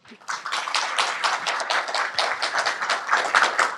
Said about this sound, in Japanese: 早速ですが、ゲストの方をご紹介いたしましょう。大きな拍手でお迎えください。